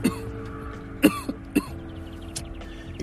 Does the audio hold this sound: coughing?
yes